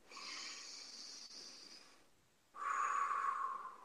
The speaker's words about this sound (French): Alors, une respiration.